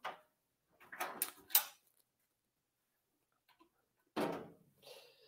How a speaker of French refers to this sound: des, petits ASMR pour les gens en ce moment, là, c'est des tiroirs qui ouvrent et qui ferment ouais. dans le bureau de Louis-José.